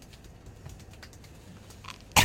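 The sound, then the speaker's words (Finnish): Soft, irregular slapping taps of hands on skin during a leg massage, faint, ending in a sudden loud, broader burst of slapping. No one speaks. “Kuulostaa kivalta toi lätinä.”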